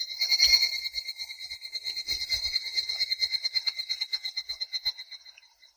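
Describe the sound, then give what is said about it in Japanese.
A higurashi evening cicada calls alone, a loud, high, ringing trill that breaks into rapid rhythmic pulses, gradually slowing and fading away toward the end. “では日暮らしの鳴き声を聞いてみましょう。”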